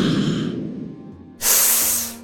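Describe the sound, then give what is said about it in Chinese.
A breathy rushing swish fades out, then after a short pause a sharp, bright hissing whoosh bursts in loudly and tapers off as someone flies away toward the guards' military camp stationed outside Tianwei City. “不觉间，夏柳的衣衫竟已湿透，冷嘲一声后，便不再久留，朝着天威城外驻扎的亲卫军营飞去。唰！”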